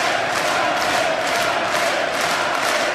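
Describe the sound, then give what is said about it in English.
A crowd cheers and chants for Art Briles, former head coach of Baylor University: a steady, dense roar, loud and continuous for the full three seconds, with bright hissy texture and rhythmic swells, no single voice standing out. “Give this fool a round of applause. Chant for him.”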